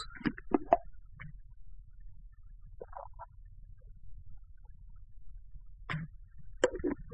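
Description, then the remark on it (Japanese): Someone drinks water: a cluster of short gulping and swallowing sounds, a few soft isolated gulps after a pause, then another brief cluster, with no talking over a faint low hum. “水を飲みます。”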